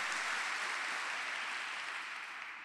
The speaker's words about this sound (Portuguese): Vamos aplaudir o Senhor já agradecendo. Aleluia. Aleluia.